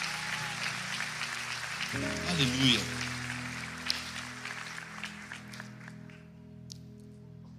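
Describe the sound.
An audience in a church claps steadily, applauding Jesus for the church's volunteers on National Volunteer Day, 28 August, in a dense, sustained wash of applause, joined partway through by a held organ-like chord and a voice calling out over the clapping.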